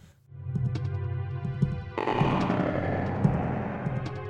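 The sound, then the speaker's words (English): Video game dungeon music set inside a living creature: a steady, low rhythmic beat with slow strings pulses under dense, droning synthesized tones, with a thicker wash of sound entering midway and occasional gurgling, belch-like thuds punctuating the loop. “It's punctuated by bodily sounds that sound like belching or indigestion.”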